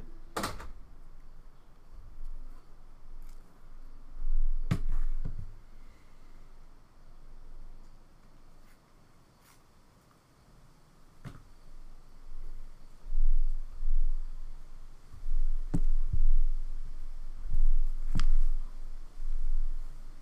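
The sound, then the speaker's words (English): Someone quietly rolls a joint by hand: soft rustling and crinkling of paper, broken by a handful of sharp, scattered clicks and taps, with no talking. “I hope you guys enjoy me rolling for five minutes.”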